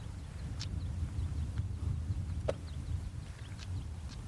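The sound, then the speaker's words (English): A male stonechat's sharp, hard clicking call, like two pebbles knocked together, repeats every second or so over a steady low outdoor rumble, with no voices. “It does sound a bit like a camera lens, doesn't it? Yeah, just two pebbles being knocked together.”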